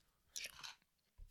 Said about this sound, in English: Excuse the noise, I'm eating a Tic Tac.